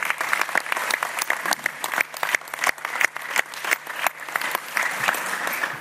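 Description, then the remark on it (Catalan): An audience at an election night event applauds steadily, a dense patter of many hands clapping at an even, sustained level throughout, with no voices rising above it. “No estalviem aplaudiments aquesta nit.”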